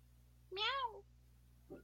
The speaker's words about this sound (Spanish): ¡Miau!